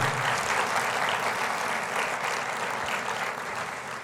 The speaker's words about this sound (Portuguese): Dê para Jesus uma forte salva de palmas, amém?